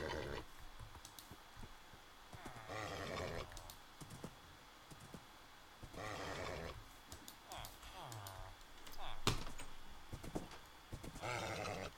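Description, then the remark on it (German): A horse whinnies in several short, bright bursts spaced a few seconds apart, over a faint clicking background resembling typing on a keyboard. “Was will das Pferd von mir, WTF?”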